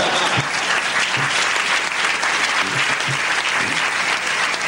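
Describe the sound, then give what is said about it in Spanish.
Sustained audience applause, a dense, steady wash of many hands clapping at an even loudness for several seconds with no voices standing out. “Eso merece un aplauso. Aplaudan, por favor, por lo menos.”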